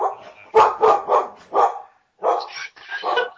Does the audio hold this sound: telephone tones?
no